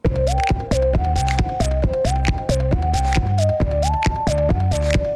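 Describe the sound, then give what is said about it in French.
A person makes music by striking cushions in a steady, repeating rhythm, each hit a deep, muffled thump, while a sustained wavering melodic tone plays over the beat throughout. No one speaks. “Il tape ses coussins.”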